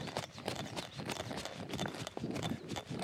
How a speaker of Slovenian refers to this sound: Dobro, zaključimo s hojo, se ustavimo na mestu, stečemo na mestu, ena, dva, tri, tako tak visoki smo in tečemo naprej. Rahlo smo nagnjeni naprej in nas kar samo nese. Tako, tako, drobni koraki, kot miške.